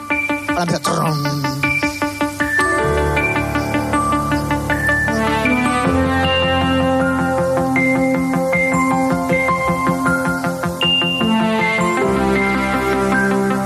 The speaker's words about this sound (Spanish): Os voy a poner una sintonía que se utilizaba eh, en el año 1984 como previa a, los informativos